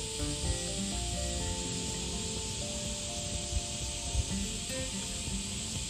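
A steady, dense wall of cicada buzzing fills the scene, a loud continuous high-pitched drone that never lets up, with faint low rumbling and scattered tonal chirps underneath.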